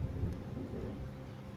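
Steady rain hisses continuously with a deep, rumbling low end, like a downpour. Fairly quiet and unchanging throughout, with no voices.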